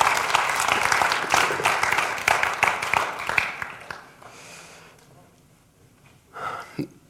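A burst of audience applause, dense rapid clapping that is loud for about four seconds and then fades out, followed by a brief faint murmur near the end.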